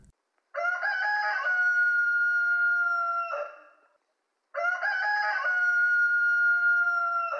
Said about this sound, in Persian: کله سهر بود و صدای خروس می اومد